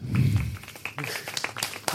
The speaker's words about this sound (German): Applaus für 110.